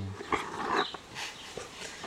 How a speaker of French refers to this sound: Oui, le petit chien.